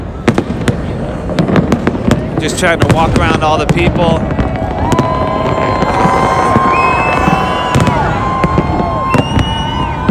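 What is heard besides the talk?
fireworks exploding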